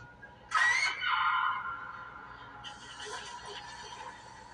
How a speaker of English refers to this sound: They're screaming. Why are they screaming?